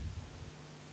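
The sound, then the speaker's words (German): A low, muffled rumble of thunder outside during a thunderstorm with rain rolls briefly and fades within the first half second, leaving a faint steady hum behind it. “Ähm, solange die Gewitter, also jetzt gerade, wo wir aufzeichnen, donnert es draußen gerade.”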